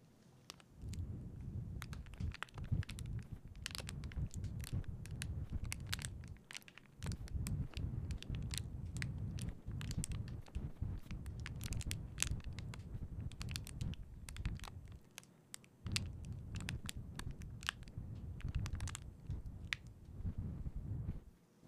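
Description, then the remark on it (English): Dense crackling and popping from a crinkled cellophane wrapper rolled gently between fingers imitates a crackling fire as a Foley effect, with irregular snaps over a low, breathy rumble from gently blowing into the mic that swells in long stretches and briefly drops away twice. “as long as we save that wrapper and roll it gently between our fingers, combine it with gently blowing into the mic”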